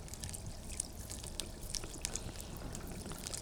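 Water flowing and trickling in a steady, continuous stream, with a broad hiss and small bright splashes and drips scattered throughout at a moderate level. No one speaks.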